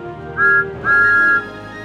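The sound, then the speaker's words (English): The whistle of Thomas the Tank Engine, a small blue steam engine, number one engine on Sir Topham Hatt's railway, sounds twice, a short toot followed by a longer sustained blast, loud, with a soft steady background beneath it. “He is the number one engine on Sir Topham Hatt's railway and has a whistle that sounds like this.”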